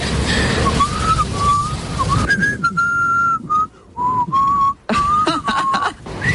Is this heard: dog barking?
no